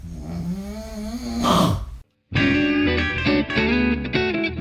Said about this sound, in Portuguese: É isso aí, espero que você tenha gostado da interpretação do Dragão Smog pelo ronco dos meus pais.